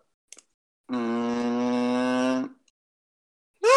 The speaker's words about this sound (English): On kazoo. Oh the, the kazoo. I didn't know a kazoo could go that low. Oh, it can go pretty low.